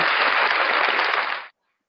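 A burst of applause, a dense, steady crackle of many hands clapping at an even level for about a second and a half before it cuts off abruptly into silence.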